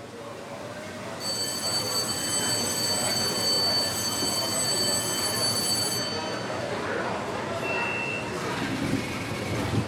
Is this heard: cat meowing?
no